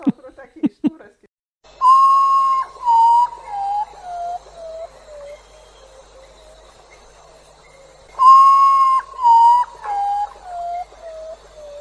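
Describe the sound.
A potoo's mournful whistling call: a clear series of slow notes sliding steadily downward, given twice, after a brief voice at the very start.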